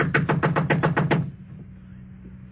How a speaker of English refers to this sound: Knock again.